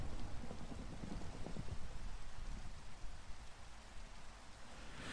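Steady rain falls continuously, a dense, even hiss with a soft low rumble beneath it, fairly loud, with no voices throughout.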